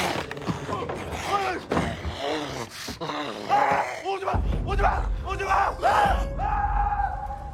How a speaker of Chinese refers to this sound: 霎时间，凄厉的惨叫响彻军营。